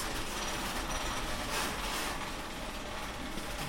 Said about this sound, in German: Da gibt es verschiedene so Rollgestellanlagen und ich schließe jetzt mal eine auf. Da, sind, da ist die Erdsammlung Schweiz drin. Erdsammlung Schweiz steht da.